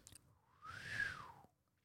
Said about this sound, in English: yeah. Sorry. that just didn't come out. I was trying not to blow in the mic and then it just didn't whistle.